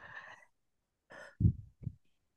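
A deep breath drawn in and let out at the start of a short meditation, starting with a broad airy hiss, then a second rush of air, followed by two short, lower bursts of exhalation, fairly loud.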